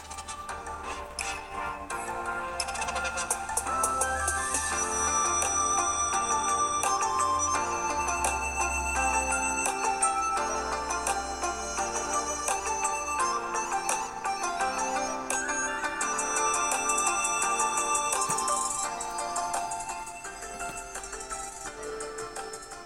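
A telephone rings with a bright, repeating electronic melody, steady and fairly loud for about twenty seconds, then fades out; no one speaks.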